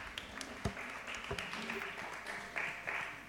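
An audience claps steadily throughout, a dense, crackling patter of many hands with a few sharper claps standing out. The applause stays fairly quiet and even, with faint voices mixed in.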